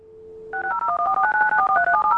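A brief steady dial tone gives way to a quick run of about ten telephone keypad tones, each press a clear dual-pitched beep, loud, with no voices.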